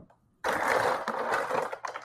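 A heap of ice cubes is tipped into a dark and stormy cocktail made with ginger beer: a sudden, dense rattle and clatter of ice that runs for over a second, dips briefly, then ends with a few last clinks.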